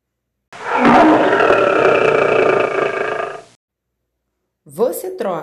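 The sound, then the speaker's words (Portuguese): A single loud, rumbling lion roar holds for about three seconds, then fades out; after a short silence, a voice briefly starts speaking. “Você troca um leão sem dente por um dragão obediente?”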